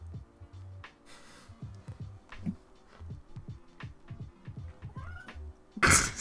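A cat meows repeatedly, a string of short, insistent cries in an uneven rhythm, with a sharper burst of noise near the end.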